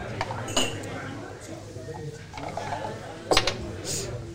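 Dice rattle and clatter, heard as scattered sharp, hard clicks with a brief burst of quick knocks near the end, over a low background murmur.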